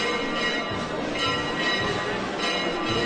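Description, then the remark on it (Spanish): Church bells pealing continuously in a farewell to the Virgin of La Cinta in Huelva, a dense wash of overlapping ringing tones that stays loud and steady throughout, with a faint murmur of voices underneath. “ese replicar de campanas diciendo no un adiós, sino un hasta luego a la Virgen chiquita.”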